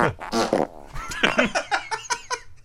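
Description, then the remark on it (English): A rapid string of several loud, homegrown fart sounds, each short and differently pitched, some squeaky and some buzzing, tumbling one after another with no talking. “These are all uh, organic homegrown farts.”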